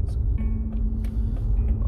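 Steady, loud low-pitched road rumble from inside a moving car, with a constant engine hum running underneath and a few faint ticks and rattles scattered throughout.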